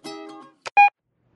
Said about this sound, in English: Hey, you've reached Dr. Game Show. Leave your message after the beep.